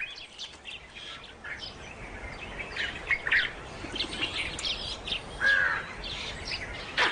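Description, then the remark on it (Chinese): A male long-tailed langur, up in a tree, gives alarm screams warning of approaching danger, ringing out in sharp, harsh bursts, the loudest near the middle and toward the end, over a steady wash of chirping birdsong and forest hiss. “它发出了一种特别的尖叫声，这代表警报拉响，危险正在逼近。”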